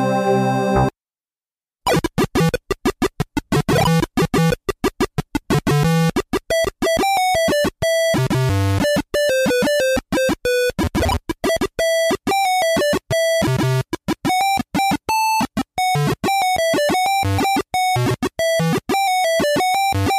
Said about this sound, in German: klingt selbst auf dem PC-Speaker geil.